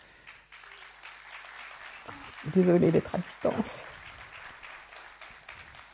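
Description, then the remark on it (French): Audience applause for three speakers rattles throughout as a broad, steady wash of warm clapping, with a voice speaking briefly over it around the middle. “Merci euh, à tous les trois, on peut vous applaudir avec chaleur.”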